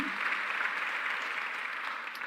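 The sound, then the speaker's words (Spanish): A crowd claps steadily for people who made a difference through their generosity, a dense, even wash of many hands applauding at once, holding the same fairly loud level throughout with no voices above it. “Podemos darle un aplauso a todas estas personas que marcaron una diferencia a través de su generosidad.”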